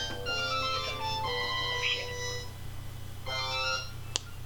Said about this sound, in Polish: Telefon nam dzwoni. Ja teraz naciskam pilota i przytrzymam przycisk dłużej.